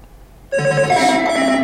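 A bright electronic telephone ringtone jingle, used in a studio to mark a phone call coming in or going out, bursts in after a brief hush, playing a loud melodic run of synthetic tones with no voices over it.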